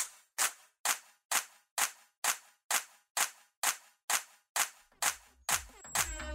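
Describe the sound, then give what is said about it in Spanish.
A crowd claps in unison on command, about a dozen sharp, loud claps in a steady, quick rhythm, roughly two per second; toward the end a murmur of voices and a faint whistle-like tone join in. “A continuación hay que comprobar cómo suenan esas palmas.”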